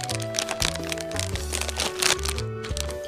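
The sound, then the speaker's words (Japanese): A bag of kimchi-flavoured potato chips, bought as a souvenir from Gifu, is torn and opened, the plastic crackling and crinkling in irregular bursts over steady background music, with no one speaking. “見た目はねあのオレンジ色のキムチですよみたいな色をしたですねあの見た目ビジュアルなんですけれどもじゃあ早速開けてみましょうかね”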